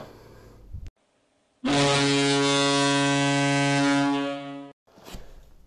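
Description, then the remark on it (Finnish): A loud, sustained buzzer horn blares for about three seconds with a steady, harmonic-rich drone, then cuts off abruptly between brief bursts of background noise. “Se oli summerisoiton aika.”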